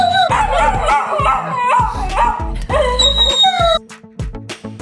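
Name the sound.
dog barking on command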